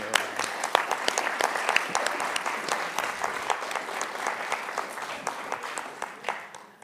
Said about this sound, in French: Et je vous propose d'ailleurs de l'applaudir.